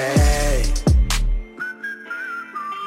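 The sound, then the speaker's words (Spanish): A person whistles a short, wavering melody, a clear thin tune that enters after a couple of deep booming bass drops, with a faint beat continuing underneath. “Salgo para la calle silbando.”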